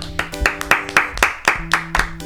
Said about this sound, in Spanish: un Aplauso solemne.